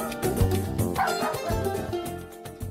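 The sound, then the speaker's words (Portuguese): A dog named Julie barks repeatedly, a quick run of sharp, yappy barks with a few whiny edges, fairly loud and with no talking over it. “Fica quieto, Julie. Vai atacar os outros, não.”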